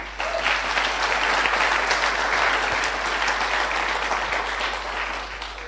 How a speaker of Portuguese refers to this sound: Se vós crees em minha oração, aplauda muito forte ao Senhor Jesus.